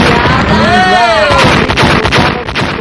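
A loud, roaring explosion sound effect fills the whole moment, with a falling whistle-like tone sweeping down early on and a rumbling, crackling blast that stays strong until the end.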